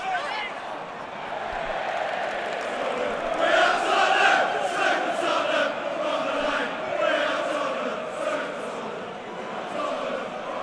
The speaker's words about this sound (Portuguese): uma arquibancada inteira aqui, parte de baixo, está lotada de torcedores do Tottenham em pé. Vou deixar vocês um pouco com os sons dessas torcidas então, para sentir um pouco de como é que é o clima de rivalidade em um derby do norte de Londres.